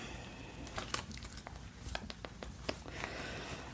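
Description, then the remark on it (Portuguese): Soft rustling and crinkling as an item is neatly folded and slipped into a bag, with scattered light taps and crackles over a quiet background. “Eu vou dobrar ele direitinho aqui e colocar pra você na nossa sacola.”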